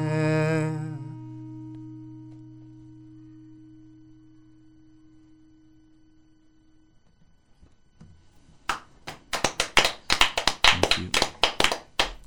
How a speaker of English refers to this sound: This is an emotional slow clap.